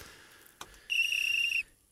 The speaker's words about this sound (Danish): Vi fløjter lige for det her